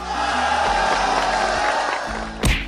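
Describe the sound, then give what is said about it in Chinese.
A dense, steady roar of crowd cheering and applause fills the whole stretch, loud and continuous, with a sharp bright burst of noise just before it ends. “山顶的朋友们，来点掌声！”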